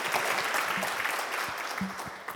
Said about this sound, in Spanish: Muchas gracias, un aplauso, buenísimo.